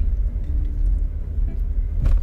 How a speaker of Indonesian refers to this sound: hari ini record di dalam mobil kita sedang berkendara jadi banyak suara-suara noise mungkin ya itu tidak masalah